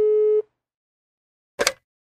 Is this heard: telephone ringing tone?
yes